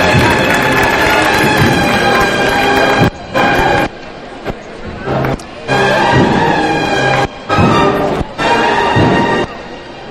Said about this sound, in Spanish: Y ahí vemos cómo arranca los primeros aplausos de la carrera el misterio del Salvador en su Santa fe